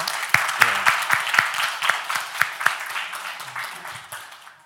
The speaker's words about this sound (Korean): 예, 수고하신 분들께 그냥 박수 한번 할까요? 들어가 주세요.